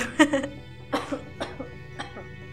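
A person coughs several times in quick, uneven succession: a few harsh bursts close to the listener, moderately loud, with short pauses between them and nothing else around.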